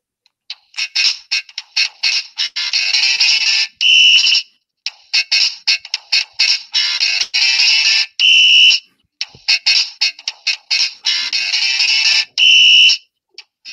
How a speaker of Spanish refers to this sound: que al principio de la partida eh, necesitas una pila que no viene en el juego, te la compras aparte, y al principio de la partida le das al DJ y se pone a sonar eh, una música. La tengo aquí en el móvil, os la voy a poner, espero que se oiga.